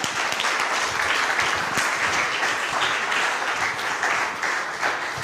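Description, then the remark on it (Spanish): An audience breaks into sustained applause for the Lord, a dense, steady wash of many hands clapping at once with no pauses, loud throughout the whole stretch and no one speaking over it. “Denle un aplauso gigante al Señor, por favor.”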